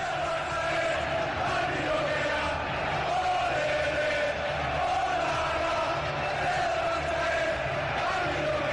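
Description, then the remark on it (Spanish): A large stadium crowd of FC Barcelona fans sings the club's anthem in unison, a dense, steady wall of massed voices carrying the melody continuously. “Eh, suena así cuando, cuando la cantan los aficionados del Barça.”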